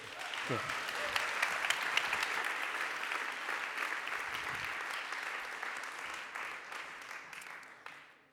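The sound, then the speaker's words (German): Steady applause at a church service, a dense wash of many hands clapping at an even loudness for about eight seconds before fading out quickly at the end. “Vielen Dank und Applaus”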